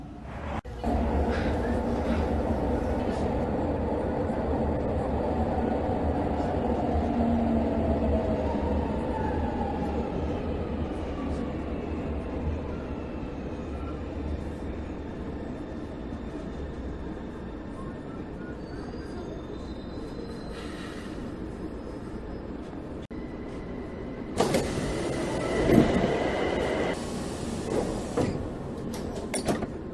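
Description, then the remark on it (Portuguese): A São Paulo metro train rumbles steadily with a low mechanical drone at Carandiru station, then doors open on the right side with a hiss and brief clatter near the end, while faint voices murmur in the background. “Carandiru. Desembarque pelo lado direito do trem.”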